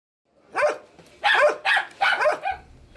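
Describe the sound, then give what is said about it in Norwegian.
Two dogs in Rocinha, the largest favela of Rio de Janeiro, Brazil, bark sharply at an arriving visitor, a rapid run of about five loud, overlapping barks with brief gaps between them, no voices present. “To hunder er lite glad for å se meg, og en diger rotte freser mot meg.”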